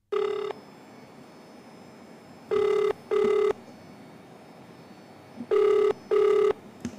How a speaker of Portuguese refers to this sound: Tentamos ouvir o suposto agressor telefonicamente, mas não nos atendeu.